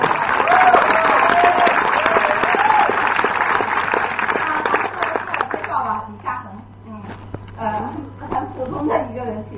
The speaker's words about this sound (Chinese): 为我们共同做出了这样一个选择而骄傲吧！为我们共同做出了这样一个选择而来一个热烈的掌声吧，好吗？